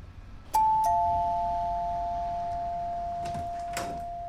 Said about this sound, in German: So, also dann klingeln wir mal.